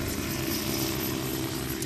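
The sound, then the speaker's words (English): A Wessex helicopter flies overhead, its engine and rotors making a steady droning roar that fills the whole moment, with no voices. “It's the sound of a Wessex just flying overhead.”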